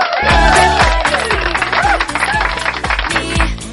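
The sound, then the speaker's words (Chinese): A loud burst of applause welcoming a long-absent regular listener, a dense wash of clapping mixed with a steady, thumping musical beat and bright tones running throughout, with no one speaking. “那我们热烈的掌声欢迎他！”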